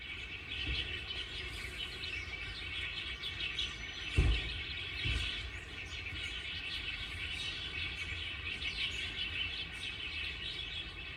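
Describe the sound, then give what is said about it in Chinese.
A dense chorus of birds in a sports park chirps and sings continuously, with many overlapping high tweets and trills, plus a couple of brief low thumps partway through. No one speaks. “然后呢，你可以在这里感觉到鸟离你好近好近，因为平常这里的鸟也不太怕人，因为有时候会有观光客在喂食。”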